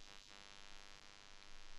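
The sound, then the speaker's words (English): A low, steady electrical buzzing hum drones faintly in the background, continuous and unchanging, with a rich stack of harmonic overtones and no voices. “why is there buzzing in the background?”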